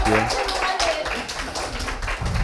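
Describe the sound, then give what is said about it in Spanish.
An audience claps together in a steady, dense wash of applause that holds loud throughout, with a voice briefly audible underneath at the start, after a poem reading at a Biblioteca de Noche talk event at Intrínseca. “Gracias, un aplauso por favor.”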